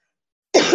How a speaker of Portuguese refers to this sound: Eu vou pedir desculpa aqui algumas vezes pela minha tosse